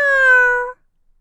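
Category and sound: animal, cat meowing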